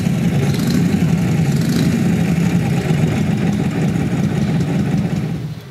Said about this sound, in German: Made from 1936 to 1947, this is the knucklehead engine.